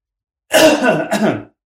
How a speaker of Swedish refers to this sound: Vänta, jag måste bara hosta.